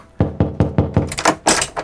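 A quick series of about eight firm knocks on a door, evenly paced, growing a little sharper and louder toward the end, with no voices.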